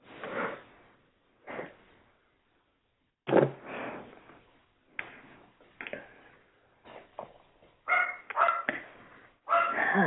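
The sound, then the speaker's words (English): A dog barks repeatedly at a person in short, irregular bursts, moderately loud, with brief pauses between barks and a quicker flurry toward the end. “That's my dog barking at me.”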